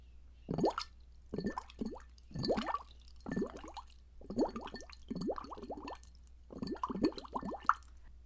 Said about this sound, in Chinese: 找到像筷子一样粗细的这样的吸管，然后呢，在盛有半杯水的这样的杯子里，然后我们可以吹气泡。听我示范一下，